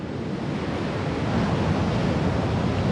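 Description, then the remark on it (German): Steady roar of ordinary, small ocean waves breaking on the town beach (Stadtstrand) at Nazaré, a dense, continuous wash of noise that swells slightly louder in the second half, with no voices. “Wir haben auch die kleinen, die normalen Wellen wie hier am Stadtstrand.”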